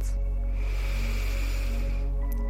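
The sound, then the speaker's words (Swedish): A long, slow inhale during a guided breathing exercise, a soft steady airy hiss lasting about two seconds over a low constant hum, with no talking. “Andas in långt.”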